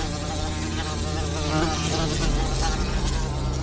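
A dense, continuous buzzing of more than 500 houseflies swarming in a room, a steady droning hum with wavering pitch that fills the whole stretch without pause.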